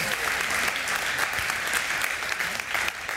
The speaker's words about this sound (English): Come on, everybody. Let's give them one more big round of applause on this day.